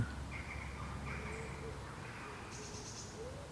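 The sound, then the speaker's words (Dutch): Faint birds chirp outdoors, a few thin high calls scattered over a low, steady background rumble, with no one talking. “horen we de vogels?”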